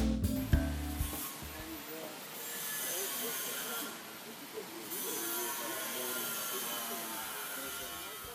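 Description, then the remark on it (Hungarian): Construction noise rumbles through the city centre of Skopje, Macedonia, where new government and cultural buildings are being built: a few heavy knocks at the start, then a steady mechanical roar with hissing and grinding that continues at a moderate, fairly even level. “Építkezés zaja hallatszik Skopje belvárosában.”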